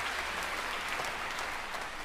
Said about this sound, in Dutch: Je hoort dus ook wat applaus van mensen die daar gezellig